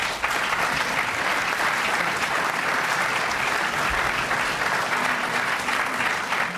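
Sustained audience applause, a dense, steady wash of many hands clapping at even loudness for several seconds, fairly close, with no talking over it.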